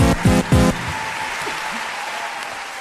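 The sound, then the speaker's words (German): A crowd applauds steadily for a performer in a final round, a dense wash of clapping, with a few loud whoops or cheers near the start before the applause settles into a sustained roar. “Und ich bitte um einen final stechen würdigen Applaus für den ersten in demselben.”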